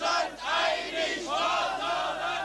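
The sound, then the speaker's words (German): A huge crowd of about a hundred thousand people cheers and roars for a man giving a speech at a rally, a dense, sustained wall of voices with rising and falling swells of shouting that stay loud throughout. “er sich in einer Rede an die hunderttausend Menschen, die ihm zujubelten.”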